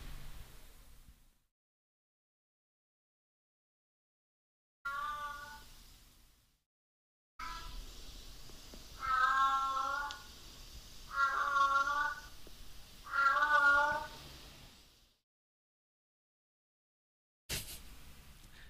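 Cats yowling and caterwauling in the early hours of the night, long wavering wails, several drawn-out cries in a row over a steady background hiss, very loud, with silent gaps between bursts.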